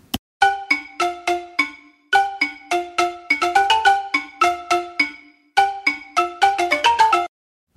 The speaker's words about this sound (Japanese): じゃあ打楽器の中でアフリカそうバラフォンがありましたのバラフォンをですね叩いてみました。バラフォンね、こんな感じのメロディーです。聞いてみましょう。